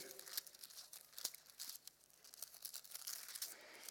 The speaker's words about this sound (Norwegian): Det er det som er så litt trasig med disse her eh, appene og nei, disse her iPadene. Du, du hører ikke den blafringa i papir. Så mitt forslag til dere som har sånn, kan, kan ikke lage en app hvor du får med den blafrelyden.